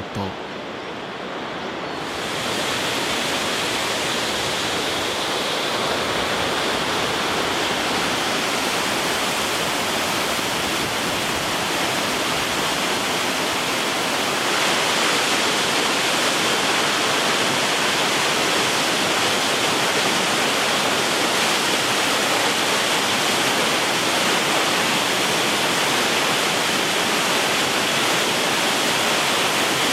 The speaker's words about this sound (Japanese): 目覚めのいいね今朝は日本三名瀑の一つ那智の滝のいい音